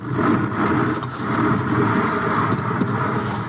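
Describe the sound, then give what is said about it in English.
A continuous heavy rumbling roar of huge boulders tumbling and crashing down past a trail in a rockslide, loud and steady throughout with dense low-end grinding and no voices. “I reach out, pull Margot off the trail as the first of the huge boulders roars past us.”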